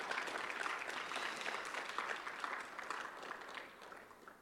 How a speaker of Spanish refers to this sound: Dele un aplauso a Cristo el Señor.